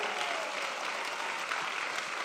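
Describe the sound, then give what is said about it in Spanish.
Steady, dense clapping from an audience, a continuous crackling wash of many hands at a fairly even volume throughout, with no voices standing out. “Vamos a alguien que le dé un aplauso fuerte.”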